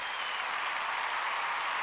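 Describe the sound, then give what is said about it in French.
A burst of steady applause for a graphic designer who worked the spotlight during a song, dense and even clapping from a crowd filling the whole moment at a consistent, fairly loud level with no voices standing out. “Moi, j'aimerais ça qu'on donne une bonne main d'applaudissement au gars ou à la fille des graphistes qui était sous spot lors de ….”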